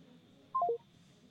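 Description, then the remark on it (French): Three quick telephone keypad tones beep in rapid succession as a phone is dialed to call someone back, each a short dual-pitched chirp stepping slightly lower, over a faint steady background hum with no talking. “Je vais vous rappeler tout de suite”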